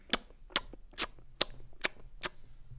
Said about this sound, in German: Knusper, knusper, Knäuschen, wer knuspert an meinem Häuschen?